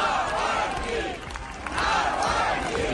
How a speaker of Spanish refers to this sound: y con los gritos de Navalny, Navalny es como ha entrado el féretro dentro de la iglesia.